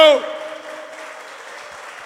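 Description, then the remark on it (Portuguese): A church audience applauds for the Lord during a sermon in a steady, dense wash of clapping that holds at an even level for about two seconds, after a brief voiced tone at the very start. “Vamos dar uma salva de palmas, Senhor.”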